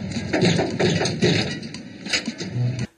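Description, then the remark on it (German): Two men knock several times on the door of an airplane ready for takeoff, dull, irregularly spaced thuds over a steady droning hum, with no one speaking. “Unsere beiden Vorzeigebürger klopfen an die Tür des startbereiten Flugzeuges”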